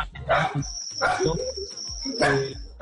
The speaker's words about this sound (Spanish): bueno, acá está ladrando el perro, obviamente en cuarentena ladra el perro, grita la niña.